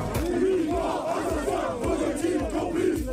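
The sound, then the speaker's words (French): A large crowd at a rally organised by Éric Zemmour and his supporters chants in unison, voices swelling in a steady rhythmic cadence that repeats several times, loud and continuous throughout with a dense roar of many people. “Un rassemblement organisé par Éric Zemmour et ses partisans.”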